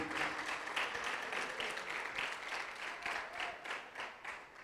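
Steady applause from a church audience at an evening service, welcoming the night's preacher, many hands clapping in a dense, continuous patter that swells slightly in waves, with no speech over it.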